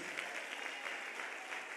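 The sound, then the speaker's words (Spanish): An audience at a church service gives a loud applause to Jesus after a prayer, a dense, continuous patter of many hands at a fairly even level with no voices standing out, sustained across the whole stretch. “Un aplauso fuerte Jesús.”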